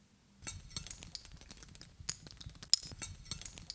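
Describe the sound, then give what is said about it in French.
Many metal rings worn on a person's hands clink together in a rapid, irregular run of small bright taps and chimes, fairly quiet, with no talking. “J'ai toujours des bagues, beaucoup de bagues, et je les enlève euh, très peu, et ça fait des années que ça dure.”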